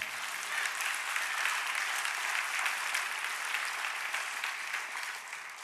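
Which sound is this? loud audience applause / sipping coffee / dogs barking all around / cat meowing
loud audience applause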